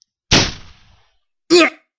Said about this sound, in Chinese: 突然，一记尖锐的枪声传来